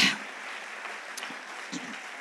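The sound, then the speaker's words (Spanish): An audience applauding God at night, a dense, steady wash of many hands clapping at once, sustained and even throughout, with no clear individual claps standing out and no speech. “¿Habrá alguien aquí que pueda aplaudir a Dios fuerte en esta noche?”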